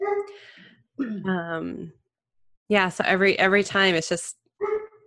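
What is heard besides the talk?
dog barking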